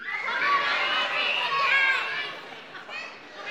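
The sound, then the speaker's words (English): A crowd of children shouting all at once, calling out what they hope to get for Christmas, a loud jumble of overlapping high voices calling out together for a few seconds before tapering off. “And then for all the kids, but even, you know, kids of all ages, when I count to three, I want you to call out what you're hoping to get for Christmas, just to stir some anxiety for parents, okay?”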